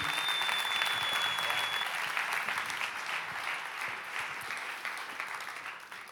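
Steady audience applause as a guest is welcomed onto the stage fills the whole stretch, a dense wash of many hands clapping at an even level that eases off slightly toward the end, with no voices over it.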